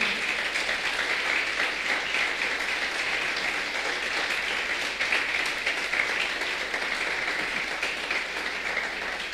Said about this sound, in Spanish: un aplauso grande al Señor. Gloria a Dios.